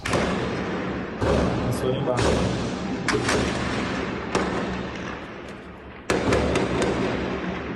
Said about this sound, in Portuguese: Tiros de fuzis romperam o silêncio da noite em Araraquara e os criminosos montaram barricadas com caminhões em chamas para tomar o controle durante o assalto.